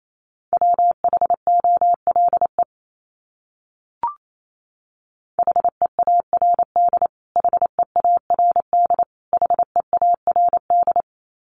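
Rapid Morse code beeps at 28 words per minute, sending a word, at a single steady mid pitch, keyed quickly into short and long tones. The beeps come in two bursts separated by a pause with a brief click, and no voices.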